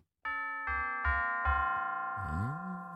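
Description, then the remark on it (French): A phrase of the Westminster chime: four evenly spaced bell notes ring out clearly and overlap as they sustain, followed by a lower tone that swoops downward and rises again. “je vous rejoue maintenant, je vous rejoue, vous avez entendu la mesure, je vous rejoue maintenant une des mesures du carillon de Westminster.”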